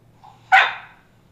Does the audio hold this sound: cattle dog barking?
yes